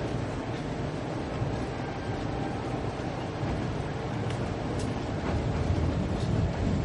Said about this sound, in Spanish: El tren atraviesa varios campos de cultivo donde se acumulan los grandes rollos de heno tras la cosecha.